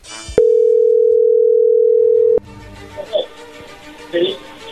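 A phone's ringback tone on an outgoing call: one steady, mid-pitched beep held for about two seconds, then it cuts off, leaving low background noise and a few faint muffled sounds.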